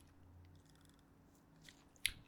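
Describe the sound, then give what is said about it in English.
Soft chewing of a thin, omelet-like crepe made with Just Egg, over a low steady hum, quiet throughout, with a couple of brief moist smacks near the end and no talking. “Okay, he's he's chewing crepe Yeah, it tastes like a really thin omelet because it's based on the just egg”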